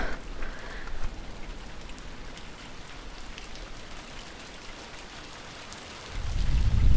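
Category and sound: nature, water drops dripping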